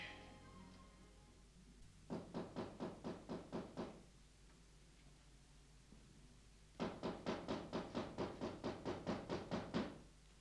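Rapid knocking on a door in two bursts: about eight quick raps, a pause of a few seconds, then a longer, louder run of around fourteen steady knocks, clear.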